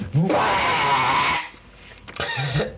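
A long, loud scream followed by a shorter second shriek after a brief pause, with a hissy, slightly muffled tone, from a digitized cassette tape recording dating from 1997.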